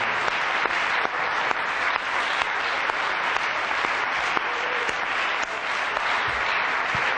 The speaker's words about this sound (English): Is that how you feel tonight? Let's give the Lord a good clap offering of praise.